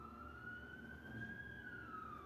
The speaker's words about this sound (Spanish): La madre se escucha la patrulla.